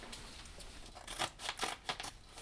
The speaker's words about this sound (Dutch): Dat is het zakje amandelmeel, wat nu opengeknipt wordt. Dat zit in papier.